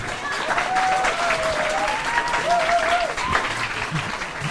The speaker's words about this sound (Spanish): Un aplauso, por favor, para su director.